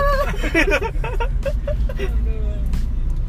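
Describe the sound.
Steady low rumble of road and engine noise inside a moving car being driven, continuous throughout, with people talking and laughing over it.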